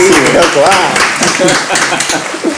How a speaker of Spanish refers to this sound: O sea, perdón, me pongo de pie. Aplaudimos